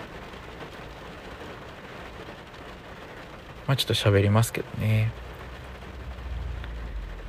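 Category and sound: nature, heavy rain falling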